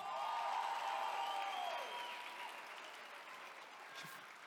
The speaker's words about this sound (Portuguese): Eu vou te dar a oportunidade de aplaudir a Jesus com mais intensidade.